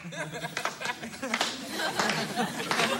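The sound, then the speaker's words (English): Scattered, half-hearted applause from a small crowd for a woman at the piano, a few claps spread unevenly over a few seconds, mixed with faint chuckles and murmuring voices. “hey, I know a pity clap when I hear one.”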